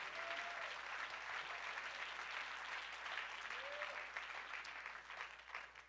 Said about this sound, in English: Somebody clap your hands unto the Lord and give Him praise.